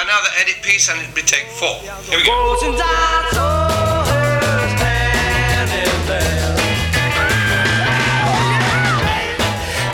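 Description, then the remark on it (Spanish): A loud, dry-sounding rock band plays a lead guitar solo with little reverb, an edited studio take, over steady pounding drums, with excited voices shouting and whooping along throughout. “… sugirió hacer una edición en algunas notas para el solo de guitarra. Esta sin tanta reverberación y con más gritos emocionados”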